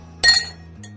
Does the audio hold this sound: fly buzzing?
no